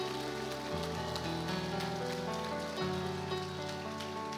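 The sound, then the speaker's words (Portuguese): An audience applauds in a dense, steady wash of clapping that lasts throughout, with sustained musical tones underneath. No one speaks. “Você e a sua casa para aplaudir, aplaude, irmão, com vontade.”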